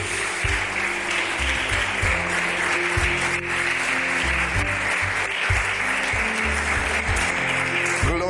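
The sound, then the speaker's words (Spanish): A church audience applauds the Lord steadily for the whole stretch, a dense, even wash of clapping with no pauses, while low, sustained bass tones shift underneath. “Aplaude al Señor.”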